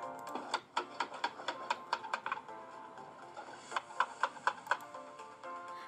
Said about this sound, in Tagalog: Tunog ng nagmamartilyo.